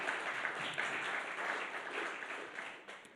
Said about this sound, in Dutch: Applaus voor Jezus.